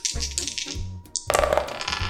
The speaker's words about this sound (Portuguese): Vamos jogar um dado aqui para decidir quem tem o direito de escolher.